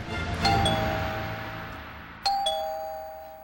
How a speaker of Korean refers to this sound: 이때 현관벨이 울린다.